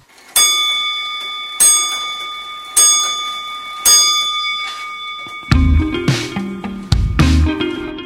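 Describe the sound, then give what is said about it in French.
A radio time signal on Radio Campus Paris: four evenly spaced ringing pips, each about a second apart with a lingering tone, then a louder, fuller burst of low, chiming sound takes over. “Au quatrième top, il sera temps d'écouter le journal de la création sonore.”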